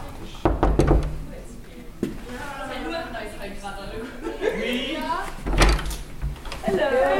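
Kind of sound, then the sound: impact, knocking on a door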